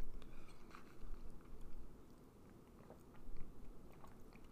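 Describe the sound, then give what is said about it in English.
Quiet mouth sounds of someone sipping a thick mint chocolate chip drink, with soft wet smacks and small crackles spread over a few seconds and no talking. “But all right, let me take my first sip.”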